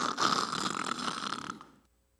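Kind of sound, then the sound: vocal imitation, person imitating snoring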